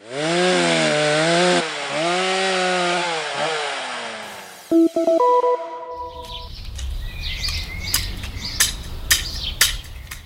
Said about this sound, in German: Dann würden auch die Geräusche des Abholzens nach und nach verstummen.